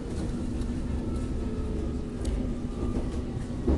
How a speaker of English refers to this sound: The next station is West Kensington, exit for Olympia, London. Find the gap between the train and the platform.